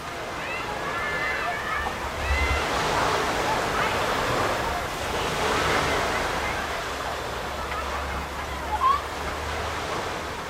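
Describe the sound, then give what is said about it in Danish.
Gentle waves wash onto a sandy beach on the east coast of Jutland, Denmark, in summer, in slow, broad swells, a steady soft rush of surf with a few faint voices and a brief splash near the end. “Det er doven sommerstemning på de store sandstrendene langs Jyllands østkyst.”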